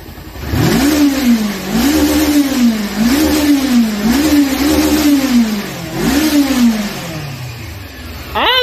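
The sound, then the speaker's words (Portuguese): A V8 car engine whose fuel injection needs fixing revs hard in a steady rhythm, five loud, throaty blips about a second apart, then settles back to a rough idle. “Tem que arrumar essa injeção. Não, tá de boa, Tá ouvindo?”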